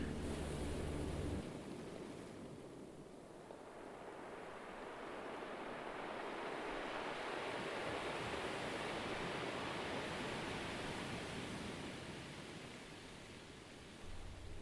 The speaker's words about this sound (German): du hörst, wie die Wellen angenehm rauschen und dir dabei ein wohliges Gefühl von Liebe, Sicherheit und Geborgenheit geben.